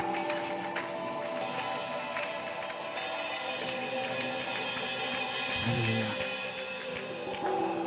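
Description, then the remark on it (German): An audience at a church service applauds Jesus and the people steadily for several seconds, a dense, even wash of many hands clapping at once, with soft sustained musical tones humming underneath and no speech. “Lass uns mal Jesus, aber auch den Personen einfach einen Applaus geben.”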